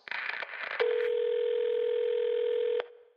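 A brief clattering rustle gives way to a steady, unbroken telephone dial tone, a loud mid-pitched hum lasting about two seconds before it cuts off abruptly.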